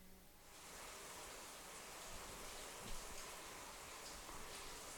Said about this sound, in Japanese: 収録をしておりましたら急に雨が降ってきました雨や雷雷も鳴ってますね音が入ってくるかもしれませんけどもお聞き苦しい点はご容赦ください